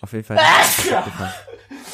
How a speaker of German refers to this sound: Gesundheit. Na holla, die Waldfee. Das ist jetzt der dritte Nieser. Die ersten beiden habe ich versucht, so gut es geht zu unterdrücken.